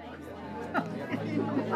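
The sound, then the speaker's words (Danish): Indoor crowd chatter from many overlapping voices at a Christmas bazaar in a day centre in Humlebæk, Denmark, on a Sunday afternoon, the first Sunday of Advent: a steady busy murmur with occasional clearer voices rising out of the hubbub, moderately loud. “Det er søndag eftermiddag, den første søndag i advent, og jeg er taget til Humlebæk Dagcenter, og så møder jeg.”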